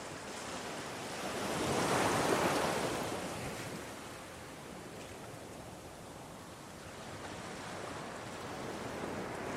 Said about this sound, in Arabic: يؤكد مهندسو الصوت على أن هذه الأصوات تشبه سيل المياه أو مجرى أنبوب صرف صحي ولكننا نصر دوما على أن ما نسمعه هو صوت أمواج البحر